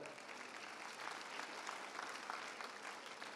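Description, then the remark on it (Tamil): An audience of students at a lecture applauding, a dense, steady patter of many hands clapping together that holds at an even level throughout without speech. “இந்த மாதிரி ஒரு கடினமான உரையை ரொம்ப கவனமாக செவி கூர்ந்து கேட்டிருக்கீங்க நீங்கள் உங்கள் எல்லாருக்கும் இன்னொரு வாட்டி நீங்களே கிளாப் பண்ணணும்னு நான் நினைக்கிறேன்”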